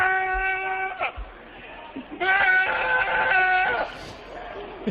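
A goat bleats in two long, wavering, nasal cries separated by a short pause, loud, with faint background noise and no talking.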